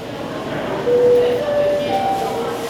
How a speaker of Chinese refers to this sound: 这个吵杂的声音来自急诊室，也是受虐儿受伤后。第一个被送往的地方